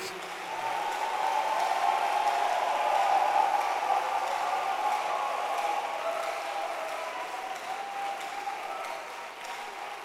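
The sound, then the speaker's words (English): An audience claps their hands for Jesus in a dense, continuous wash of applause that holds steady for about ten seconds, moderately loud, with faint voices mixed underneath. “Clap your hands for Jesus.”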